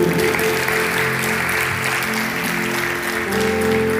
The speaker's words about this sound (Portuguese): Se você está entendendo, aplauda esse Deus maravilhoso.